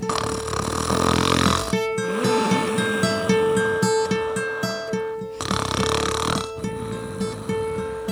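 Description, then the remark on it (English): A voice imitates the loud snoring of a sleeping eight-eyed bat in a story about Maui, in two long drawn-out cycles, a raspy rumbling inhale followed by a whistling, buzzy exhale, with no words spoken. “And he knew that the eight eyed bat was asleep.”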